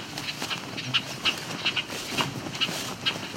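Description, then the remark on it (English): Bobolinks give short, harsh chattering calls, about half a dozen sharp notes spaced irregularly, over a steady outdoor background hiss. “So all this annoyed chatter are all bobolinks.”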